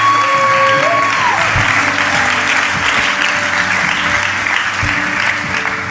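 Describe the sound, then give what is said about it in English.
A large audience at a church service applauds and cheers in praise of Jesus, a steady, dense wash of clapping that fills the room, with a brief sustained tone fading out near the start. “Can we give Jesus some praise in the room?”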